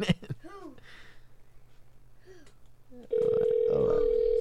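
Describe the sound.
After a few seconds of voices, a loud, steady telephone ring tone cuts in abruptly and holds to the end, an incoming call-in to the QSJRadio.com show coming through the line.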